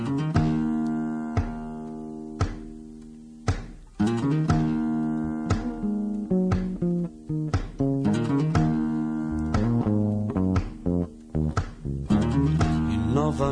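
A Brazilian song plays loudly and steadily on a radio programme, an instrumental stretch of sustained chords punctuated by a regular rhythmic beat, with no voices heard.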